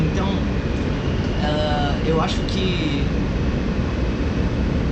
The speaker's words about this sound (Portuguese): no metrô, que é onde eu tô aqui